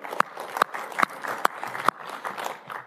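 An audience breaks into applause, a dense, steady patter of many hands clapping, with a few sharper individual claps popping out at a regular beat over the wash.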